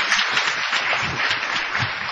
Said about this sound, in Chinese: 掌声给他鼓励一下